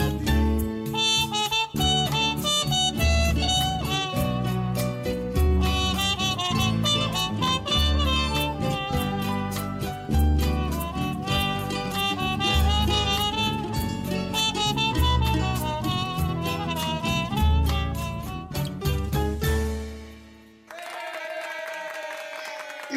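A lively samba song with a singing voice over brisk, steady percussion and strummed accompaniment, loud throughout, then a sudden drop into a softer, sustained closing passage for the last few seconds.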